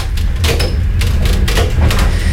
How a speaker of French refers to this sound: Puisque des, techniciens sont en train de, changer l'écartement des rails des trains. Parce qu'en parce qu'en fait, euh, en Mongolie et en Chine, les, les rails ne sont pas écartés pareil.